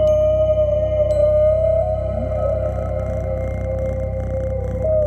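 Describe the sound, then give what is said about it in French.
A cat purrs steadily for the whole stretch, a dense low rumble with no pauses, overlaid by a faint sustained tonal hum. “Plus près de nous et plus pratique pour établir une connexion animale-musicale, le ronron du chat.”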